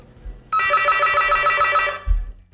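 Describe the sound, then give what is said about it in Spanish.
An apartment intercom buzzer rings in one steady, harmonically rich tone lasting about a second and a half, then cuts off, followed by a low thump. It is the intercom for the fifth-floor flat of a building in a gentrified neighbourhood. “si me permitís, voy a llamar aquí al telefonillo del quinto, por ejemplo.”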